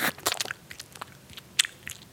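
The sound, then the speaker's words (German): A person mimes chewing gum as a mouth-loosening exercise, with wet mouth smacks and clicks in an irregular rhythm, about a dozen quick crunchy bursts over two seconds, with no talking. “oder so Kaugummi kauen.”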